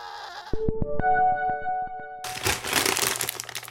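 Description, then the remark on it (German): A few sharp clicks over a steady tone, then a loud crinkling rustle of a bag of roasted chicken protein chips being torn open that continues to the end. “Oh, was wird da geöffnet? Proteinchips.”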